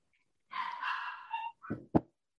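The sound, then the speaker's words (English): A dog lets out a drawn-out, whiny yowl, then two short, sharp barks in quick succession, clear with no talking over it. “Yo, somebody dog.”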